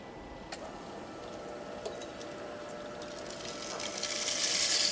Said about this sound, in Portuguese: E como é um dia de chuva, a chuva vai bater contra a nossa janela.